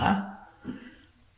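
A small baby burps close by: one short, throaty burp at the start, then a second softer one a moment later, with nothing else around them.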